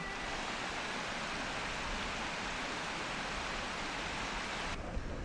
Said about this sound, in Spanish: Apoyados sobre el puente que unía el balneario con los jardines, al otro lado del río, escuchamos el sonido del agua.